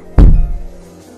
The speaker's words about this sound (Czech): Byl to zvuk toho, jak čelo naráží do okna. Zvuk stále zrychloval a zesiloval. Celé okno se třáslo.